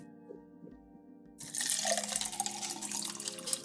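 Water rushes and splashes after a quiet stretch of low hum, starting abruptly and continuing steadily, like someone drinking straight from a flowing river.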